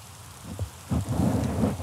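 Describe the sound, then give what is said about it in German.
Light drizzle patters in a steady, soft hiss, broken by a couple of low, muffled rumbling thumps partway through. Nobody speaks. “Aber du hörst es ah. auch regnen.”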